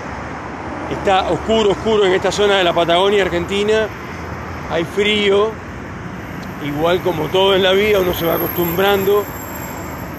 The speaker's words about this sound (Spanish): pero empezaron a llegar estos camiones y cosas, y bueno, entonces me interrumpen y no puedo hablar con mi gente. Em, Disculpen el ruido, pero ando en la calle.